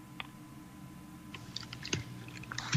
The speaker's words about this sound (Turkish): Şimdi buruşmuş kağıdı aç lütfen.